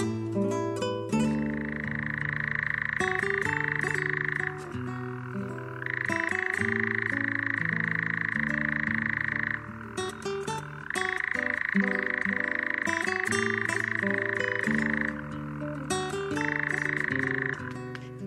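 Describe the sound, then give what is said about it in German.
A European nightjar's dry, mechanical churring trill carries on in long unbroken bouts separated by brief pauses, steady and fairly loud, with a soft tonal musical backing underneath. “Das war der Ziegenmelker.”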